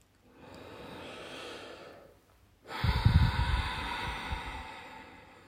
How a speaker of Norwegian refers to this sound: Sitt gjerne litt til med denne pusten. Så det er lurt å sitte hvis du ikke er vant til ujjayi-pust. Man kan bli litt svimmel når man akkurat har begynt å prøve med den typen pusteteknikk.